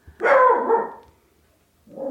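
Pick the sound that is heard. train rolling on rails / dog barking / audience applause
dog barking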